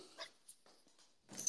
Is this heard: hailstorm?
no